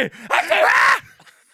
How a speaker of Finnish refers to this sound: Aivastit se just mua päin.